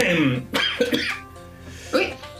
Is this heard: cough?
yes